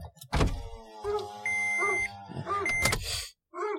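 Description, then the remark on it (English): A car's power window rolls down after the key is turned slightly, its electric motor whirring steadily for a few seconds after a brief clunk, with no one talking. “Turn that key just a little bit, and we're going to roll the window down.”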